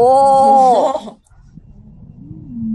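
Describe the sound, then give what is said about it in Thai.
A recorded wheezing lung sound: a loud, musical whistling tone for about a second, then a brief pause and a fainter, lower wheeze drawn out to the end. “ออ๋นี่คือเสียงฟี่หรอ”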